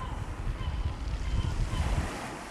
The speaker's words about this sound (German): Meinetwegen auch in einer Küche mit Blick aufs Meer. Und wenn ihr wollt, sind auch die Fenster geöffnet und ihr hört das Meer rauschen.